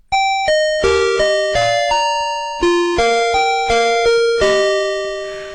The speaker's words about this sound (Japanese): 元歌ファミリーマートの入店音のこの部分です。